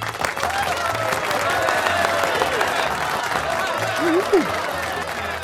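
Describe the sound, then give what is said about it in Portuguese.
A crowd applauds steadily with dense, continuous clapping, mixed with cheers and whoops rising over the din, including a loud shout near the end. “Palmas!”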